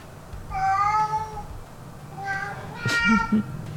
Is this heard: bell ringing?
no